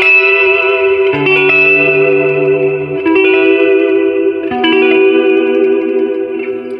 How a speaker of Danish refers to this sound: Men altså, den her, den er jo bare... Det er magtfuld akkord, ikke? Du kan starte alle film. Ja. Alle film soundtracks ja. bare med det her.